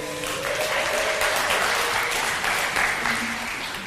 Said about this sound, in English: oh, look at this. The tech team are awesome. Round of applause for our tech team.